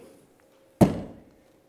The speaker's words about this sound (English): And as the gavel pounds, you, you hear a pin drop.